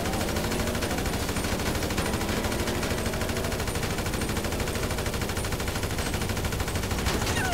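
Sustained gunfire from a street gun battle: dense, rapid bursts and overlapping shots keep up a steady, loud barrage for the whole stretch, with no voices.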